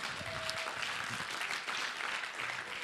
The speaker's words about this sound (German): Danke vielmals. Geben wir ihr noch einmal einen grossen Applaus. Danke euch.